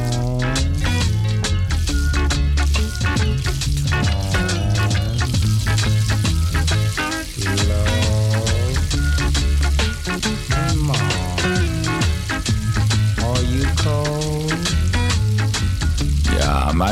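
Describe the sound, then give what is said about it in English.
A loud, continuous hiss of running water, processed through a preamp, sits within a dense musical track with deep bass and sliding tones, sizzling steadily for the whole stretch without any talking. “Een beetje water er doorheen.”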